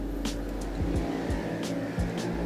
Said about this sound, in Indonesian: aduh musik banget motor pada knalpotnya itu gitu banget sih